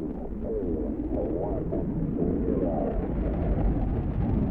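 A deep, continuous roar of rocket engines at the liftoff of a Mercury spacecraft launch after a countdown, loud and steady throughout, with heavy low rumble and faint wavering tones riding on top.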